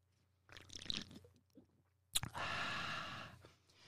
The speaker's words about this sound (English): I'm gonna do a sip.